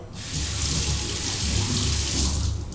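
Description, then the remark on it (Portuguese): A kitchen tap runs steadily into a sink while dishes are washed, a continuous rush of water that starts abruptly and holds at an even level for a few seconds, with no voices. “Então quando eles falarem, ah, se dá triste, vai lavar uma louça, vá, é bom.”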